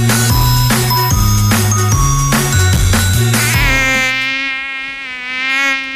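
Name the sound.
mosquito buzzing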